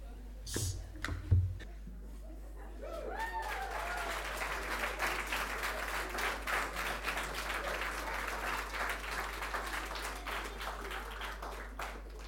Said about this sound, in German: Der Applaus gilt natürlich den äh, Kids von der Powerbox gestern, die diesen Film mitgedreht haben.